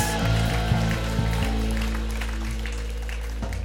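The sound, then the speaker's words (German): An audience applauds for Jesus in a dense, steady wash of clapping, with low droning tones sustained underneath throughout. “Yes, come on, geben wir Jesus Applaus.”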